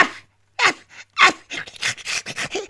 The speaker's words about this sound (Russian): А собачка возле печки потявкивает.